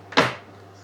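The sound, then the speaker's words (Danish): A single short, bright scraping clatter of a kitchen drawer being pulled open to fetch a meat mallet for crushing black pepper, rising quickly and fading over a fraction of a second against a low steady hum. “Jeg tager simpelthen ned i skuffen her og finder kødhammeren og bruger den flade side til at knuse peberet med, fordi jeg gerne vil have store stykker peber ned i.”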